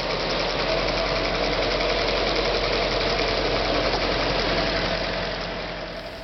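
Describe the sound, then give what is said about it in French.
A reed bale processing machine in a workshop, with bundles of reed fed into it and at least three workers operating it, runs with a loud, steady mechanical drone and a rapid rattling pulse, unbroken for several seconds before easing off slightly at the end. No one speaks. “Et là, il faut aussi trois personnels minimum sur la machine.”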